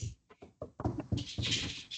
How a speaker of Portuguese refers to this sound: Bate na madeira aí, bate na madeira aí.